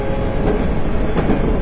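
A steady, loud rumble of a Hankyu 8000 series electric train running as a Kobe Line limited express from Shinkaichi to Umeda, dense low-frequency roar with faint rhythmic clatter of wheels, no voices.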